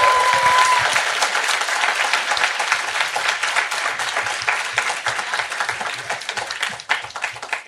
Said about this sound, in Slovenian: Prej je bilo bližje ploskanje.